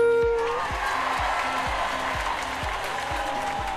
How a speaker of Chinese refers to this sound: 我要欢呼，我还要掌声。